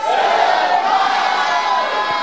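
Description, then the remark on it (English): A large audience at a church service shouts "amen" together in one loud, sustained collective roar, their many voices blending into a dense wall of sound with no single speaker standing out. “If you believe it, shout a louder amen.”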